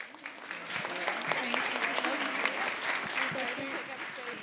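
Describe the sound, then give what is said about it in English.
An audience claps steadily for three event organizers in a dense, continuous round of applause lasting several seconds, with a few voices murmuring faintly underneath the clapping. “um, but yes, one round of applause for them and their awesome podcast.”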